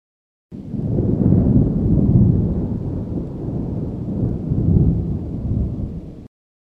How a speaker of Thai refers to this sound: เสียงฟ้าร้องดังขึ้น